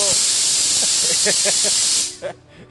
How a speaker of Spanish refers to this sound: El sonido es como un escape de, vapor. Sí, yo espero que. Con que no sea una alarma de fuego, cabrón. Una fuga de gas